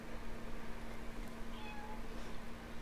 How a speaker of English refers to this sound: Where did we get a cat?